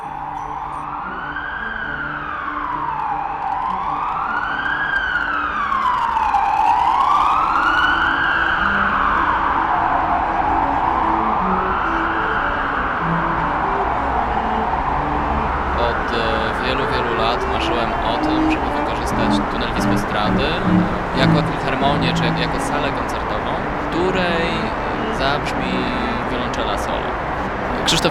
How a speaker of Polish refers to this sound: Niesamowite jest to, że po prostu rzeczywiście każda ulica, każda droga w Warszawie produkuje dokładnie taki sam hałas, tylko że on leci w przestrzeń, on się rozchodzi